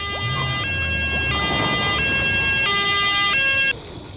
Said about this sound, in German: Da kommt die Feuerwehr angerauscht.